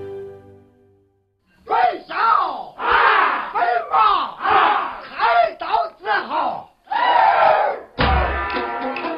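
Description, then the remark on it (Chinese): Roaring Qin opera singing from the theme music of the film White Deer Plain (Bai Lu Yuan), the most representative music of writer Chen Zhongshi's hometown in Shaanxi: loud, hoarse, full-throated vocal phrases in forceful bursts with brief breaks, following a second of quiet low droning at the start. “这嘶吼的秦腔是陈忠实家乡最具代表性的音乐，也是陈忠实本人最喜欢的音乐形式之一。”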